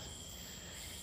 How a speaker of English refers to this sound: Probably hear the cicadas in the background.